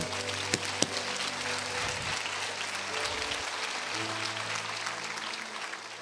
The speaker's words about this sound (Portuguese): Pode aplaudir, irmão.